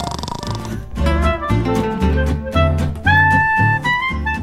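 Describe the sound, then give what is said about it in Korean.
A person imitates loud snoring with a run of rhythmic, rumbling voiced snorts, repeated several times in quick succession with a buzzy, nasal tone and no other talk. “어, 코고는 연기. 아니 진짜 연기.”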